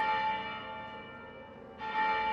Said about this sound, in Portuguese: Na noite de 23 para 24 de agosto de 1572, os sinos da Catedral de Saint-Germain fizeram o prenúncio do dia de São Bartolomeu.